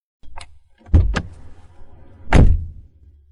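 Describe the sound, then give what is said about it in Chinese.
A car's power window glides open: a couple of sharp clicks, then a steady low electric whir for about a second and a half, ending in a firm thump as it stops. No voices. “他上车之后，系好了安全带。打开了车窗”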